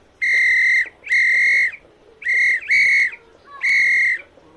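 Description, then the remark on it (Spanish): A loud police whistle blows five sharp, shrill blasts in a steady rhythm, two of them nearly back to back, with no one speaking. “un silbato muy ruidoso.”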